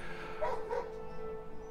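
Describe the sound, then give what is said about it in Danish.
A dog gives two quick barks in close succession, fairly quiet, over a steady low background hum with no one talking. The dog is with a woman who is walking past. “Men det er lige der, hvor damen med hunden kommer forbi.”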